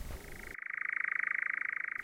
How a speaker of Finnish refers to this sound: Yössä kuului kehräjien ääniä ja näkyi useita pitkäsiipisiä lintuja.